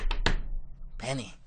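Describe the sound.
Three quick, sharp knocks on a door in a tight cluster, from a Chinese-dubbed version of The Big Bang Theory, then a brief pause before a voice calls out over a faint background hum.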